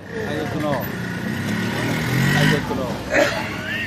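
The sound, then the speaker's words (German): Tuk-tuk motor rickshaws rumble through busy city traffic in Bangkok, Thailand, their drivers wearing face masks; a steady engine drone swells briefly, with a voice talking over the street noise. “Leute, die ständig im Straßenverkehr arbeiten, auch die Fahrer der vielen Tuk-Tuks, einer Art Motorradrischka, tragen Mundschutz.”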